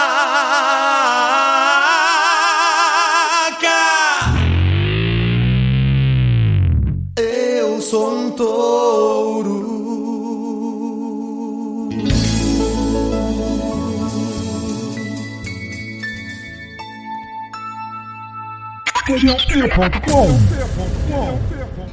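A loud recorded rock song with sung vocals and dense instrumentation, shifting abruptly between sections as if edited together, with no spoken talk over it.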